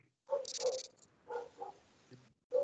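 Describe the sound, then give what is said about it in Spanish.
A dog barks in a few short, sharp bursts with brief pauses between them, moderately loud, with no talking over it. “¿Quién tiene un perro, maldita sea?”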